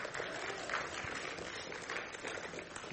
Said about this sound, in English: yes, you can applause for the Lord because that's worthy of praise if we're going to praise anything. And yes, go ahead.